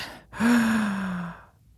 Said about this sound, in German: Also zum Beispiel einatmen auf drei